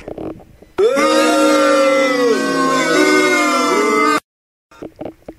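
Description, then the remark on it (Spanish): A loud, drawn-out boo lasting about three seconds, one wavering vocal tone that dips and rises in pitch, with brief talking just before and after. The boo is aimed at a song nominated as the most horrendous of the week. “Solo un abucheo, para que vea mi Dieguito”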